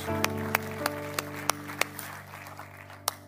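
Scattered, sparse hand claps from an audience applauding the volunteers for their service that morning, about eight sharp claps spread unevenly over a few seconds, over a steady low humming tone; no one speaks.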